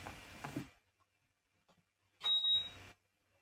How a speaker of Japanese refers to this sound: はい、扇風機が止まりました。めちゃくちゃ暑くなっちゃって。